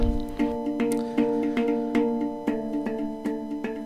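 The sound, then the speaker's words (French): A pendulum clock chimes eleven o'clock, its bell struck in a steady series of evenly spaced strokes, each ringing tone overlapping the next, clear with no voices. “Il est 11h, c'est tout à fait ça. C'est une pendule qui marche super bien.”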